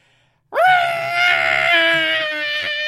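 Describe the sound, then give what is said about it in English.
A voice imitates the bison whistle that Aang uses to call Appa, with a loud, sustained, rising-then-level tone that starts abruptly and holds for a couple of seconds with a slight waver. “That's not what the bison whistle sounds like, but that's the closest approximation I can give and you think, oh, Aang's calling him.”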